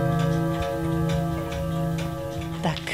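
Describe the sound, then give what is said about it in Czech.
Many clocks tick at once in steady overlapping rhythms, fairly loud, over a sustained humming drone, with a brief rising squeak near the end, in a watchmaker's shop. “chtěla jsem říct to ticho, ale to by bylo špatně, kdybyste slyšeli jenom ticho, protože já jsem dnes s mikrofonem v hodinářství.”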